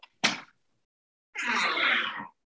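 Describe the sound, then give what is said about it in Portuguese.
A door bangs shut with one sharp thump, then after a short pause comes a longer, breathy rasping noise that sounds oddly like a sneeze. No one speaks. “Me fechar a porta, você ouviu, cara.”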